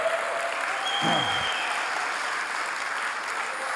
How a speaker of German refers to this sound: Ja, gibt mal einen Applaus.